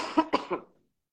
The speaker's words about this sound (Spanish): Yo estoy con una tos, eh, tuve un poco como neumonía, así que no te asustes, mi tos está bajo control, pero estoy bien.